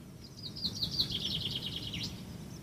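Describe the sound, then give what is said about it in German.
Birds chirp in a quick, repeating series of high, bright notes over a steady low rumble of background noise, moderately loud, with no one speaking. “Hörst du diese Vögel? Sie zwitschern.”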